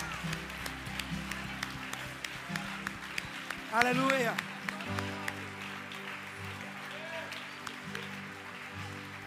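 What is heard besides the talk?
audience applause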